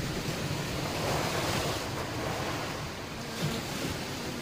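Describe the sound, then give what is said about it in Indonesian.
Steady ocean surf washing onto a Red Sea beach, a broad continuous rush of breaking waves with some wind, fairly loud, with no voices. “Setelah berbulan-bulan mencari, akhirnya Ummu Hakim berhasil menemukan suaminya di pantai Laut Merah.”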